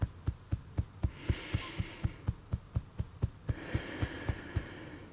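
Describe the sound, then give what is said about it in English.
Fingertips tap steadily on the middle of the chest, on the sternum near the heart, making soft muffled thumps about four per second, while a breathy hiss swells in the background during two stretches. “And now let's tap just a little bit um, on our chest, maybe in the middle, kind of near the heart, kind of on the sternum.”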